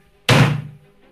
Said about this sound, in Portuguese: a fechadura faz um barulho forte de, de um clangzinho forte assim de, de ela sendo fechada e, e trancada.